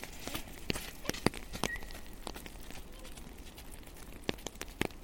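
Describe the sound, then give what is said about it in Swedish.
A jogger (an orienteer) and a happy, curious dog pass along a forest path in the rain: irregular, crisp footfalls crunching on the ground, some sharper than others, over a soft steady background hiss, with no voices. “ja nu kommer det en hund och en orienterare.”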